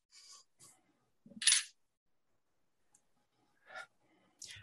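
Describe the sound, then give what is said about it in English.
A metal casino coin from Tom Givens clinks and rattles against a hard surface in a few bright, brief bursts, with one louder ringing clatter near the start and quieter taps after short pauses. “This is one of my casino coins from Tom Givens.”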